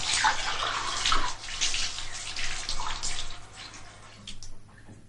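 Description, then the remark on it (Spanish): A kitchen tap runs in a steady, hissing stream while a glass that held milk and was soaped with a plastic scourer is rinsed beneath it, the splashing shifting in texture before the water thins out near the end. “Lo enjuaga bajo el grifo.”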